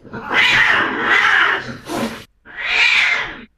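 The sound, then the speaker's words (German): An agitated cat hisses and yowls in harsh, noisy bursts: a long drawn-out snarl, a short spit, then after a brief pause another sustained hiss, as a dog jumps up and tries to chase the cat away. “Aber sieh nur, der Hund hat es auch bemerkt, springt auf und versucht, die Katze zu verjagen.”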